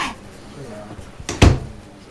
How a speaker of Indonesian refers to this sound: Sekarang giliran gue ya tutup pintu ya. Ya udah deh, tutup pintu dulu ya.